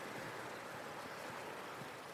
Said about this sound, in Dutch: Ja, het water stroomt hard, is vies, modderig. Maar om nou te zeggen dat het hier uitziet of het elk moment kan overstromen, nee.